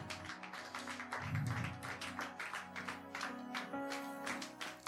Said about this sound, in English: Be on your feet. Oh, be on your feet and clap your hands.